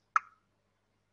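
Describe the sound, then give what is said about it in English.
A single crisp, fairly loud tongue click, made as a placeholder for a blank word in a sentence, with a quick hollow pop and a short fading tail, then silence. “I do like a tongue sound.”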